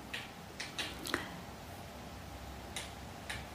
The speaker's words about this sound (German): Ja, ihr hört richtig, im Hintergrund knistert das Holz.